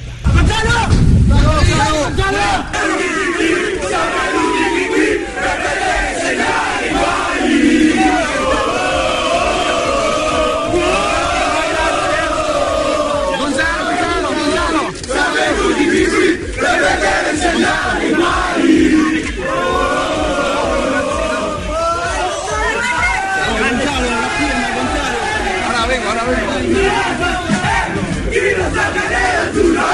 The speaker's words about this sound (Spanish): Ahí estaba entonces el recibimiento que le dieron los hinchas del equipo rosonero a Higuaín, que ha sido noticia.